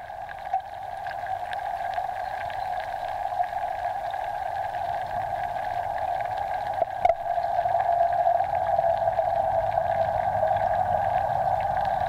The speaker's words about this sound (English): So essentially, during all the daylight hours of every day, 365 days a year, uh, if you wanted to see, hear that is, what it sounds like uh, in these hidden areas under the water, then you could tune in to that, that stream.